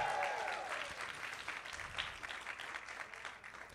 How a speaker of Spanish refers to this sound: Vamos, denle un aplauso, denle un, grito de victoria al Señor, si usted lo cree.